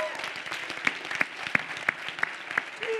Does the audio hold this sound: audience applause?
yes